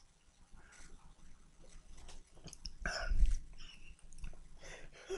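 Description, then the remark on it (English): A quiet mouth sound of someone sipping sugar water and swallowing, with a single gulping swallow standing out near the middle against faint background noise. “I am gonna do one more sip.”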